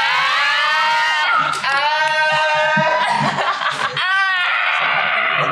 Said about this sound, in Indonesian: Fansnya Pak Wesel teriak ya? Teriak.